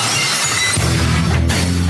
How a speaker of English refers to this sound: I need, I'm going to get a sheet of glass that just breaks behind you every week. it's like you're coming out for WrestleMania.